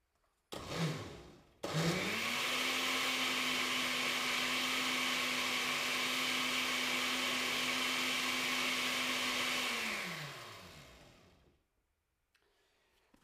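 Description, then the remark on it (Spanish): An electric blender blends tomato, pepper, onion and water for gazpacho, running steadily for about eight seconds with a loud, constant motor whine and churning of vegetables, after a brief false start, then winds down to silence. “Bien, ya hemos batido el tomate, el pimiento, la cebolla, el tomate, el pimiento, la cebolla eh, y el agua.”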